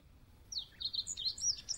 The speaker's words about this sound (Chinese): 这时，两只小鸟。落在窗前的大树上，快乐的叫个不停。